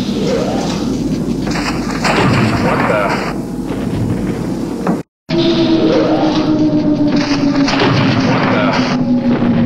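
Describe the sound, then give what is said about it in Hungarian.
A loud, dense rumbling roar breaks off briefly, then returns under a steady humming tone that slowly sinks lower in pitch like a machine powering down, a sound effect added for the Millennium Falcon leaving hyperspace, while a voice exclaims twice. “Aztán viszont ez a jelenet kapott egy ilyen egyre mélyülő hangeffektet, mint amikor egy gép leáll.”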